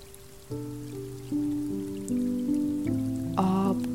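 Gentle piano chords ring out in slow, sustained steps, layered over a steady, soft hiss of falling rain, with no voices present, accompanying a relaxing meditation.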